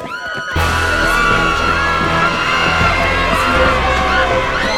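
A crowd breaks into panicked shouting and screaming as people run, after a brief quiet opening, a dense, loud mass of voices that keeps going without letup, with frantic commotion underneath.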